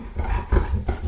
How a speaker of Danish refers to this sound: hvis der er nogen, der kan høre sådan lidt tung stønne, det er, det er en hund, der... Ja, sådan der. Der, der, der har været lidt en, en, en, øh, en stor dejlig hund her.